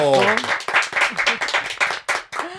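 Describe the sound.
An audience breaks into dense, continuous applause, many hands clapping close and loud, with an excited voice cheering at the start and shouts mixed into the clapping.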